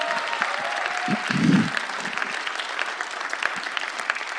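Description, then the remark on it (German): A church audience claps steadily and densely throughout, a sustained wash of applause with a brief louder swell near the start, heard from within a large audience, applauding the technical crew for sound, projector, direction and camera. “Lass uns doch heute auch mal auf die andere Seite der Bühne gucken und mal all unseren Technikern, Ton, Beamer, Regie und so weiter, auch Kamera und so, denen auch mal einen riesen Applaus geben.”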